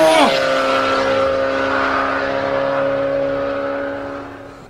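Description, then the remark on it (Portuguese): A car carrying two young men races off at high speed, its engine a loud, steady, high-pitched roar after a brief rising sweep at the start, fading slightly toward the end. “Os dois rapazes subiram naquele carro e, em alta velocidade, avançaram até o prédio onde a explosão havia acontecido.”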